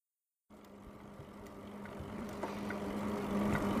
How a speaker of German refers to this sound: Die Reifen brummen freudig laut auf dem perfekten Asphalt. Das erste Mal seit Ewigkeiten hören wir einfach nur, hummelbrummend unter uns, unsere eigenen, vertrauten und lange nicht mehr so deutlich vernommenen Fahrräder.